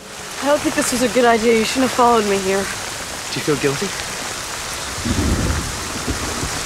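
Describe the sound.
Heavy rain pours steadily throughout a film scene in which Jonathan Rhys and Scarlett Johansson are out in the rain in a field, while voices speak over it, and a deep rumble of thunder rolls in near the end, low and booming beneath the downpour.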